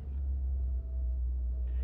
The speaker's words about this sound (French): Et je suis en voiture avec euh, Odar